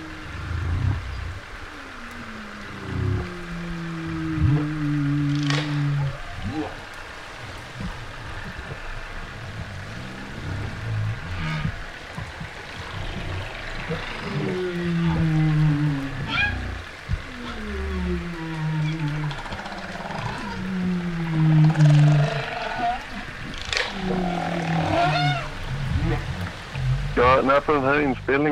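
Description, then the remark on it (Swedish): Underwater recording made in a fjord in November of humpback whale social (non-song) calls mixed with killer whale sounds: repeated low, sliding moans and grunts overlap with higher whistles and clicks, steady over a hissing background with no talking. “så, så kan man höra både knölval eh, som framförallt ger ifrån sig då några sociala men icke-sångljud som är som, eh, vad ska man säga, som nästan råmanden.”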